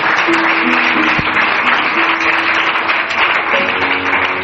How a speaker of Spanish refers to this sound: Den un aplauso al Señor, por favor, en esta tarde.